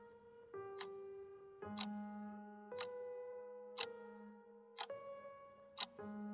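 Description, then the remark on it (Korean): A wall clock on an office wall, showing midnight, ticks steadily about once per second, six crisp ticks in all, over a soft bed of sustained, slowly shifting musical tones. No one speaks. “회사 벽 위에 붙어 있는 시계는 어느덧 자정을 가리키고 있었다.”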